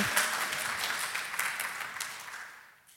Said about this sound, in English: Yeah, let's cheer. That was so wonderful.